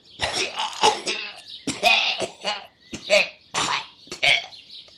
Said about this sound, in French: Mais vous savez ce que vous méritez Que je vous tousse bien dessus, bien copieusement.